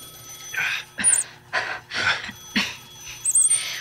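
A ringing telephone sounds in a quick series of rhythmic, buzzy bursts with bright metallic overtones, moderately loud, with no voices over it.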